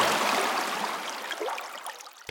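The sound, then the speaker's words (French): Shallow stream water babbles and trickles over icy pebbles, a steady bright gurgling with tiny splashes, alone and fairly constant throughout. “Sur les galets glacés, l'eau fait un son”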